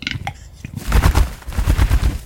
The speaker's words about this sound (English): The, the old Gaelic name is Horse of the Woods. It's a very large game bird. What Capercaillies and some other birds do, they sing these beautiful, intimate, delicate songs to the nearby females.